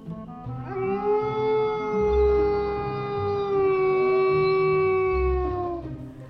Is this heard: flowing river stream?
no